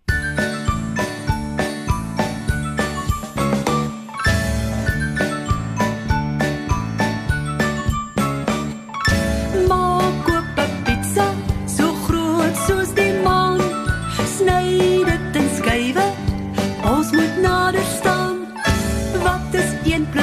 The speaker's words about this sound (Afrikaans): Maar kom ons luister eers na musiek en dan vertel ek julle.